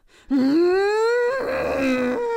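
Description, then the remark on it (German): A woman lets out a single loud, strained scream of anger lasting about two seconds, its pitch rising at the start and then holding high and raw until it breaks off, with no talking. “Und jetzt soll ich einmal schreien?”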